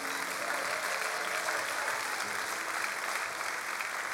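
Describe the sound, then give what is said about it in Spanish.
An audience breaks into sustained applause for the Lord, a dense, steady wash of many hands clapping at even loudness for several seconds with no clear pauses. “Vamos, alguien que lo crea y le dé un aplauso al Señor.”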